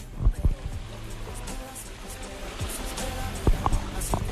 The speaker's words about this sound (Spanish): Lo que se oye de fondo es el mar, el Luán, con la playa de la Ribera.